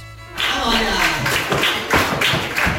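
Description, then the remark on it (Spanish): A taconeo class of about fifty children from Denmark, Sweden and Norway, taught by Chiqui de Jerez at the Festival Criatura, stamping flamenco heels on a wooden floor: a dense, uneven clatter of sharp taps and heavy thuds with rhythmic accents, loud, with no talking. “Este es el sonido de la clase de taconeo impartido esta mañana por Chiqui de Jerez a medio centenar de niños venidos desde Dinamarca, Suecia y Noruega.”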